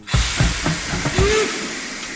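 Steady steam hiss from a small park railway locomotive in Karlsruhe, Germany, at the end of a ride, with rhythmic low chuffing beats and a brief whistle-like tone near the end, fairly loud, no voices.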